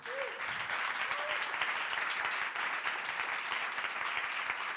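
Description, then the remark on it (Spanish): An audience applauds steadily and fairly loudly for several seconds, welcoming guest José Luis Sastre, subdirector of Hoy por Hoy on Cadena SER radio. It is a dense wash of many hands clapping at once, with a couple of brief whoops near the start. “Recibimos con este aplauso a José Luis Astre.”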